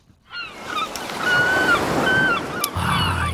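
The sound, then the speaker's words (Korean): Seagulls cry out in several short, thin calls above a steady wash of ocean surf, the waves rushing continuously and a deeper swell rolling in near the end. “파도 소리는 하면서 갈매기 소리.”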